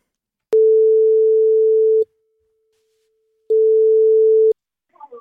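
A telephone ringback tone plays as a Mix Megapol radio host calls a listener: two steady, mid-pitched beeps, a long one and then a shorter one after a pause, before a voice briefly starts answering at the end.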